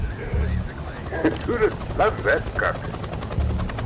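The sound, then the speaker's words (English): A helicopter's steady, loud rotor thrum in a video game cutscene set in Cape Town in 1986, in rain, constant, with brief muffled voices rising above the low engine roar. “Going helicopter.”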